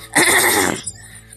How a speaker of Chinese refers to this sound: 只见呢，鸭嘴兽面色苍白，他先清了清嗓子说